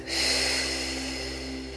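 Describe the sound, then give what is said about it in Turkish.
A single long, steady deep breath drawn in through the nose as the last breath of a guided breathing exercise, clearly audible, with a low constant hum in the background and no talking. “Ve son kez derin bir nefes alıyoruz burnumuzdan.”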